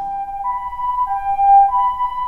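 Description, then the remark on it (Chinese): An ambulance siren wails in a steady two-tone pattern, alternating between a higher and a lower pitch roughly every half second, loud over a low rumbling background, with no voices. An aquarium rescue team has lifted a young injured dolphin into the ambulance to be checked by a vet. “水族馆救援队立刻赶到潟湖，剪断缠住小海豚尾巴的绳子，将它抬上救护车，让兽医检查。”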